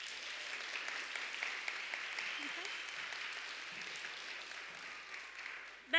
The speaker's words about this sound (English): And I'd like you to give her applause, please.